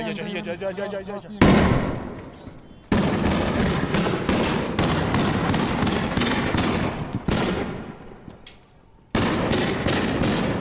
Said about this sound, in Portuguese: De repente, um jeep sai do portão e há uma chuva de granadas de gás.